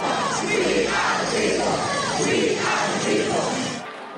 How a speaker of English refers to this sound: In New Zealand, around 4,000 protesters took to the streets of Auckland for rallies and vigils on June 1st. Crowds gathered outside the U.S. consulate.